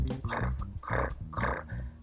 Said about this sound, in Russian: Это звук растирания палочки туши о тушечницу. Ну, в чем еще тушь могут растирать.